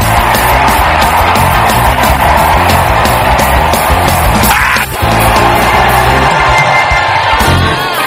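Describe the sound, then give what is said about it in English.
A crowd of people shouts, screams and yells together at full volume, a continuous roar of voices with bursts of whoops, nearly unbroken except for a brief dip midway. “Come on, shout.”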